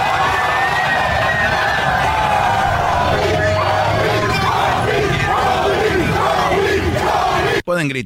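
A loud street crowd of Lakers fans celebrating the championship in the streets chants and yells "Kobe" together in a dense, continuous roar of overlapping voices, with rhythmic shouted bursts rising and falling until it cuts off abruptly near the end.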